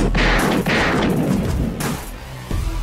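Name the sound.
gunshot sound effects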